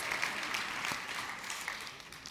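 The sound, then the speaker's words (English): A church audience claps in a steady, dense burst of applause at moderate volume, with some voices faintly mixed in and no one speaking clearly. “Make some noise if you believe that.”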